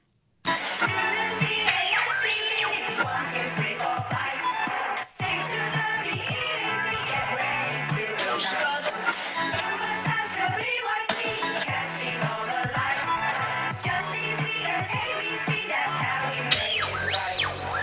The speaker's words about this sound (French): c'est la chanson qui a été reprise avec du coup … dessus le rappeur